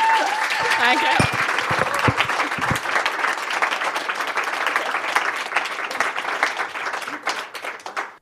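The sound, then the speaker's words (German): An audience breaks into loud, sustained applause at the end of an interview, dense clapping that holds steady for several seconds before tapering off at the end, with a few voices mixed in at the start. “einen fetten Applaus für Sie.”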